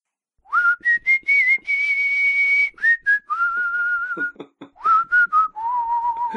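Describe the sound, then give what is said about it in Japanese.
Someone whistles a TV drama's background music, a melodic tune of short bright notes and longer held tones with quick slides between them, filling several seconds with no talking over it. “口笛うまいな、やっぱり。これ BGM ですからね。”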